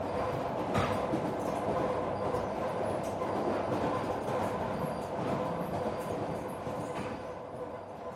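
A train rumbles steadily along the tracks, its continuous low roar and rattling wagons filling the whole stretch, loud, with a faint sharper clack near the start.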